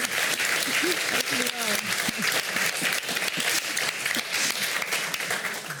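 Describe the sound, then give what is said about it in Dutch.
An audience applauds steadily for several seconds at the close of a Radboud Reflex event with the Green Office, a loud, dense wash of many hands clapping with no break, while a few indistinct voices murmur beneath it. “Groot applaus.”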